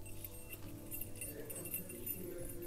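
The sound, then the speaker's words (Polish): A faint, intermittent metallic jingle of keys carried by someone walking along a corridor, with a few light clinks scattered over a low background hum and no voices. “I słychać klucze”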